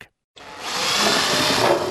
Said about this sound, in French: Ça vous dérange pas le bout de la perceuse Non, parce que j'aimerais bien terminer ton étagère à épices, ma chérie.